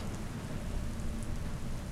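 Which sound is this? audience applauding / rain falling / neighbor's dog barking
rain falling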